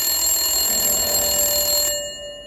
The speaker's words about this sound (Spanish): En aquel momento sonó el teléfono.